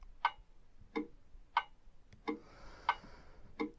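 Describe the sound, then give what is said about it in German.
A clock ticks steadily, six crisp clicks alternating between a higher tick and a lower tock, quiet, with no voices. “Ja, also wartet diese Uhr auf mich. Sie tickt und wartet auf mich, damit sie entweder weiterlaufen kann oder nicht mehr gebraucht wird.”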